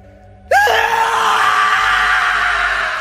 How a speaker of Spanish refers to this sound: El silencio de la noche fue cortado por un grito desgarrador.